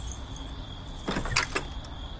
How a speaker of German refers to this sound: Warte, ich schließe die Tür zum Studio auf